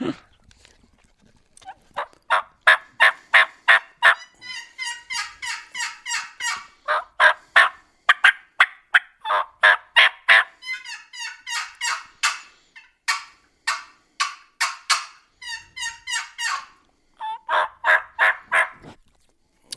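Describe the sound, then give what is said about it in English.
Two turkey hen calls, a box call and a mouth call run at the same time by one person calling to a gobbler, sound at once: overlapping runs of bright, rhythmic yelps and clucks that continue steadily for about twenty seconds, loud, with no talking. “you're running two calls there at the same time, you got two ladies over there to convince him to come in.”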